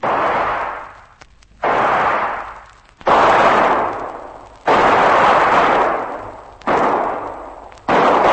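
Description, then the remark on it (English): A volley of loud gunshots, about six in all, fired at uneven intervals, each sharp crack trailing off in a long echoing roar before the next one hits. No voices. “That first shot didn't nick you, did it?”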